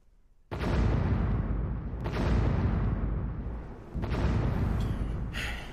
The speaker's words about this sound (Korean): 장군, 동북쪽 방면에서 대포 소리가 연이어 세 번 은은하게 들려왔습니다. 후금 오락해골은 대포가 없으니 필시 우리 중국의 서로원이 쏜 것이 틀림없을 것입니다.